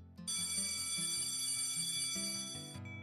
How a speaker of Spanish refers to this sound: La campana del receso sonó, apagando toda su emoción.